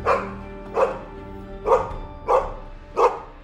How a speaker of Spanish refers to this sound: Como para enfatizar la frase, dio un ladrido y meneó la cola enérgicamente.